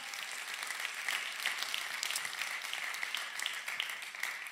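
A crowd applauds steadily, many hands clapping in a dense, continuous wash of sound that holds at an even level throughout, with no talking over it.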